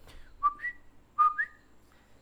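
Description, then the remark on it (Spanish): A person whistles two quick two-note calls, each a short low tone jumping to a higher one, imitating the "co-kee" chirp of the coquí frogs commonly heard in the background of recordings and calls in Puerto Rico. The whistles are clear, with no talking. “Cuando, cuando usted está grabando algo, siempre se escuchan esos coquis por detrás. Hacen algo, con un tipo de ruido como.”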